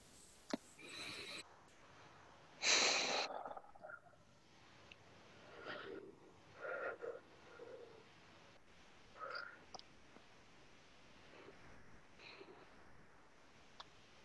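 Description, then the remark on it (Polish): A group of people take a deep breath: a sharp inhale breaks the near-silence, followed by several softer, scattered breaths drifting in over the next seconds, with no one speaking. “proponuję, żebyśmy wszyscy wzięli głęboki oddech.”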